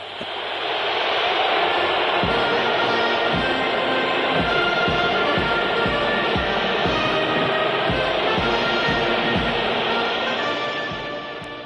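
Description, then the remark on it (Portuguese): A huge stadium crowd of thousands of Algerians at the Stade de France boos the French national anthem, La Marseillaise, in a loud, unbroken roar, with a steady series of low rhythmic thumps beating underneath throughout. “Essa tensão foi sentida ainda na execução dos hinos nacionais, quando a Marselhesa foi sonoramente vaiada pelos milhares de argelinos que marcaram presença no Stade de France.”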